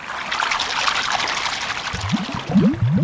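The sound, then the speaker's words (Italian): Socks dropped from a hand fall into water, which sloshes and splashes continuously, with bubbly, rising gurgles toward the end. No one speaks. “Oh, no, mi sono caduti di mano proprio i miei calzini.”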